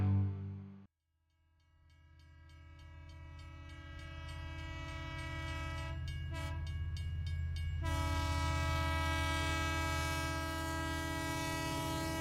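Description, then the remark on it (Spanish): A tram rolls along its rails with a loud, steady motor whine and layered tonal hum, building after a brief quiet moment near the start and holding strong to the end, with no voices. “Un niño de 10 años, clase acomodada, baja el tranvía que le lleva del colegio de vuelta a casa.”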